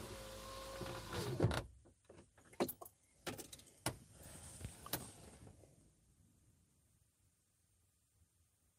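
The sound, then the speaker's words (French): A car's power window whirs shut with a low motor hum, followed by a scatter of sharp clicks and knocks inside the car before everything falls quiet. “Fermez la fenêtre, là.”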